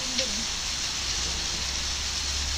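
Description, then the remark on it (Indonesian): Steady, dense hiss of heavy rain pouring continuously, a loud wash of noise with no pauses, with a brief faint vocal sound right at the start. “ininya nih hujan besar banget kan”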